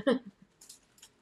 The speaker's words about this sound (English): That is the sound of the cat playing in her little cat house. It has a walkway that's super crunchy. So tell Violet hello.